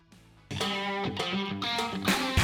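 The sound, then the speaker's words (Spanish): A full band kicks in after a brief quiet moment, with loud, dense guitars and steady drum hits driving a rock song forward, no voices heard. It is a new 2023 version of the song. “Ahí está esta versión novedosa 2023 de … de …, que es lo que suena a continuación.”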